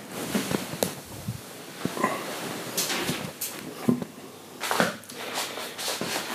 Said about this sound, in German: Ich kann ja mal Folgendes machen. Ich werde jetzt mal Fenster aufmachen.